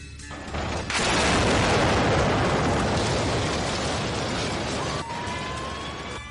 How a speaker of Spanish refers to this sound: En la explosión morirían el tunecino, Arri Rifat Anouar, Aleke Malamari, los hermanos Ouladakka y Abdenabi y también su líder, Yamal Amidán el chino.